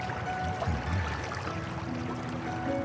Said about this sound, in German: Angestrengt lauschte er und konnte dann neben dem Plätschern und Gurgeln des Wassers doch ein sägendes Geräusch in der Ferne ausmachen.